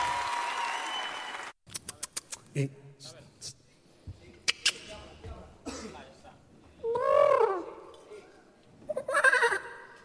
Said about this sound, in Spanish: Entón, imos dar xa paso á segunda semifinal e os primeiros son o equipo JA. ¡Aplausos!